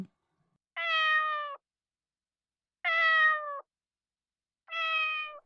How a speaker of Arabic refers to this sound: لم تهرب القطة بل ماءت ساخرة